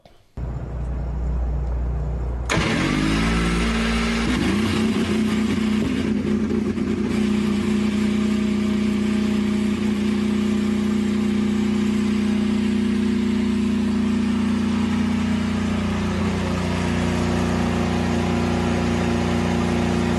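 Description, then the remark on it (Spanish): Canapino's race car engine starts: a low rumble suddenly roars to life and settles into a loud, steady idle with a strong low hum, a brief shift in tone early on as first gear is engaged, then the engine note eases slightly toward the end. “Y después van a distinguir el momento exacto en el que Canapino pone la primera marcha.”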